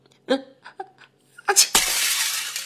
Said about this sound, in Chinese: 他正要趴到我耳朵上说什么，忽然皱起了鼻子，闭上眼睛，张大嘴巴，仰起头，他一他要打喷嚏，果然，紧接着就是一声。